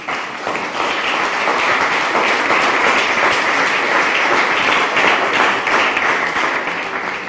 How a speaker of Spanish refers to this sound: Amén. Dele un aplauso, Señor.